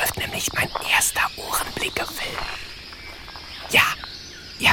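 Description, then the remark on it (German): Australian birds in dense rainforest in Queensland, in the early morning, call in a busy jumble of short, scratchy chirps and squawks, with a steady high insect drone underneath and one louder burst near the end. “Die Vögel Australiens zeichnen sich im Gegensatz zu ihren europäischen Verwandten weniger durch lieblichen Gesang aus, als vielmehr durch eine breit gefächerte Palette verschiedenster Laute.”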